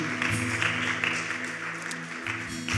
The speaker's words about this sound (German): Lass uns einen Applaus geben und feiern, dass Leute diese Entscheidung getroffen haben.